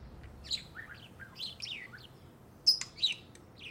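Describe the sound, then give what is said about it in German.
Two budgerigars chirp and chatter in a busy, overlapping stream of short warbling notes, with a few sharper, louder squeaks near the end; no one speaks. “Das sind die Vögel.”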